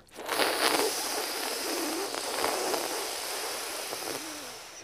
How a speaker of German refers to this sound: Ich werde dich jetzt gleich zu ein paar Runden anleiten. Rolle also die Zunge längs oder quer und erzeuge jetzt diesen Zischlaut, während du einatmest.